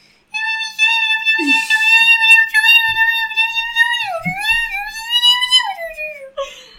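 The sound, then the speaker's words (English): A person voices a sustained, high, wavering cry imitating a Mothman call, holding a strained pitch for several seconds with slight wobbles and dips, loud. “That was a Mothman call.”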